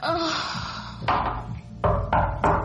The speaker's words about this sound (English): Someone knocks on the bathroom door, but we both ignore it.